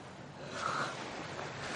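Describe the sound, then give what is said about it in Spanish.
Sea waves wash against a rocky shore on the coast of Japan, amid mist, in a steady, hissing rush that swells briefly near the start and then holds, fairly loud, with no voices. “En una barca, los sacerdotes y Kichijiro se acercan a la costa.”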